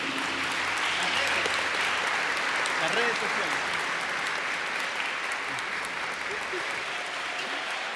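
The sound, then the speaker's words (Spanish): A crowd at an event applauds steadily for the whole stretch in greeting to the absent event coordinator, a dense wash of many hands clapping at an even level, with some faint murmuring underneath. “Así que un saludo de parte de ella y un aplauso así a distancia para que lo reciba.”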